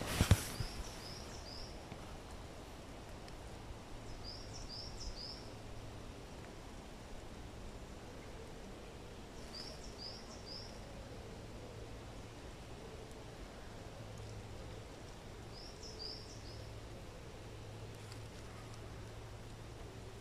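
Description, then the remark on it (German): Birds chirp faintly in a quiet forest, short bursts of three or four high notes every few seconds over a steady, soft hiss of outdoor ambience. “Ich, also ich sitze mitten im Wald, so kannst du es dir vorstellen, und lass die Vögel zwitschern und bin kurz einmal still nur für dich.”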